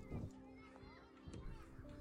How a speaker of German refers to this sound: Die Kinder spielen irgendwo hinter diesem Hügel. Langsam kommt ihr an der Spitze des Hügels an und tatsächlich kannst du hinter dem Hügel einen Kinderspielplatz entdecken, auf dem ganz viele Kinder spielen und Spaß haben.